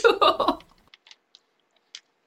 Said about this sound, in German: Und nebenbei mampf ich mein Sandwich.